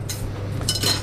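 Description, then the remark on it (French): A metal steamer basket clinks and scrapes as it is set in the bottom of a saucepan holding a little water for steaming, with a couple of bright metallic clatters over a low steady hum. “Donc ça se positionne dans le fond de la casserole.”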